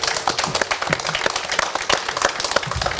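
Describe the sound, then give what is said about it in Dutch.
A small group applauds after a certificate marking 50 episodes is handed over, with dense, irregular hand claps that keep up a steady, moderately loud patter for a few seconds, with no speech. “Ja, applaus mag.”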